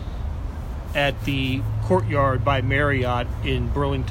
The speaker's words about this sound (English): It is, It we're actually outdoors, so you might hear some highway noise.